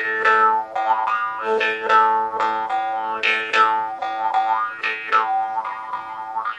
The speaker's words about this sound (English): What was the first instrument that you mentioned? Murchunga. It's Murchunga Yes. Let's listen to the sound right now.